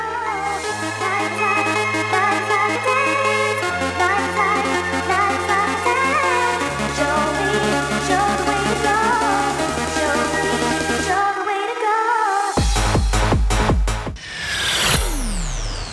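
An electronic dance track plays loud and alone: held synth chords over a deep bass line that steps every few seconds, then a sweeping, rising effect takes over near the end.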